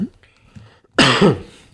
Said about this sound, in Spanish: Perdón, de nuevo. Mira que estaba mejor de la tos.